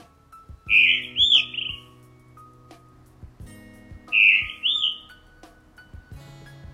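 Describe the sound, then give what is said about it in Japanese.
Two clear, melodious whistled phrases of a blue rock thrush, singing on a church roof at about 4:30 a.m. while still dark, ring out a few seconds apart over a low steady hum and faint background noise. “はいこんな鳴き声でね、えー、なんかこうさあ起きろよというようなねあの音なんですけども鳴き声なんですけど磯ヒヨドリではないかと思われるんですね”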